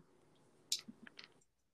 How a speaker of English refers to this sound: Oh, that was my. Oh, that was my phone. that, that was my phone.